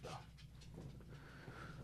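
A dog pants quickly and rhythmically for a couple of seconds, with soft breathy huffs and faint whimpering tones, fairly quiet, with no one talking.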